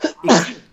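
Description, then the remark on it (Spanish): A single sharp sneeze, fairly loud, with a brief inhaled buildup followed by an explosive burst that quickly fades. “salud.”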